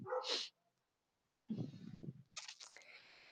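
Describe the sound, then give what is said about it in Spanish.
A dog barks sharply in Bogotá, one short yelp followed by a pause, then a longer rough burst of barking and whining that trails into high-pitched yips. “perdón por el perro, no sé qué ocurre.”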